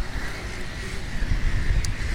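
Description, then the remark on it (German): Steady wind rumbles and buffets against the microphone outdoors on the North Sea coast by a gull colony, with heavier low gusts thumping through in the second half, a continuous roar at the mic. “Wir müssen uns vielleicht mal etwas gegen den Wind abschirmen.”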